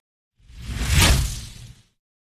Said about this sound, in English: So we're going to do A and B, one or two, with this little swoosh in between.